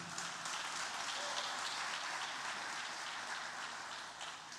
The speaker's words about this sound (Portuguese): Não, dá um aplauso a Jesus aí, ué.